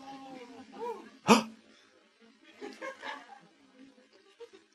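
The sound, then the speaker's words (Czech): A single sharp dog bark rings out loud, preceded by a brief whine-like yelp, followed by quieter murmuring voices in the background. “Máš pejska v autě?”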